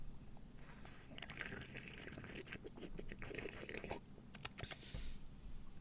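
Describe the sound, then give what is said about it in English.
Slurping and sipping of a fizzy soda from a can, with wet mouth sounds, small gulps and soft fizzing crackle over about six seconds, ending in a sharper juicy slurp. “yeah, what uh, uh, what flavor do you think um, I'm sipping on?”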